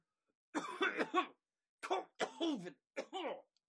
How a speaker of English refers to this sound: Start coughing into your shoulder, and just spell just bounces off of it. Okay. Fortunately, you start coughing as you take in this poison gas.